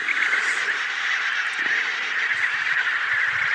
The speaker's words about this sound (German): Pinguine. Unendlich viele. Also, um genau zu sein, eine ganze Kolonie mit 30.000 Tieren.